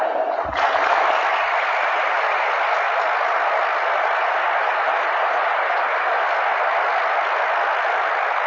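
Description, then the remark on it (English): Sustained applause from a large crowd at a priesthood ordination, the people giving their assent to the election of the men for ordination, starting abruptly and continuing steadily at an even level for several seconds, with no voices standing out. “At this point, Tom, what you hear is the people giving their assent to the election of these men for ordination to the priesthood.”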